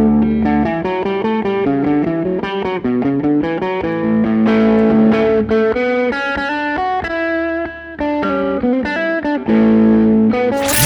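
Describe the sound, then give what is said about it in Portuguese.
The Rio Grande do Sul state anthem performed live by a singer, opening the Planeta Atlântida festival in Rio Grande do Sul, as a loud instrumental with a distorted, effects-laden lead melody moving in steady stately phrases over sustained chords, with no singing or talking. “… o homem, a lenda, o mito, um bago em cada canção, abrindo as edições do Planeta Atlântida no Rio Grande do Sul com o hino do Rio Grande do Sul.”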